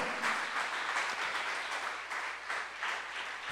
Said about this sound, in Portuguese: Vamos aplaudir a Jesus.